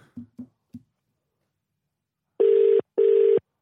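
A phone line's ringback tone: two loud, steady electronic beeps in quick succession, following a few short, soft low blips and a brief silence. No voices.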